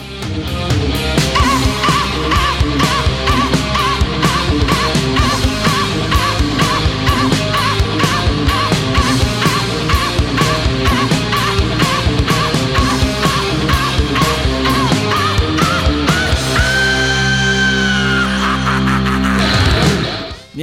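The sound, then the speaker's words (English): A loud, dense rock song played live by a band at a festival, driving drums and distorted guitars under a shrill, screeching vocal that rises into a long sustained wail near the end. “they kick into their first song, and I hear this”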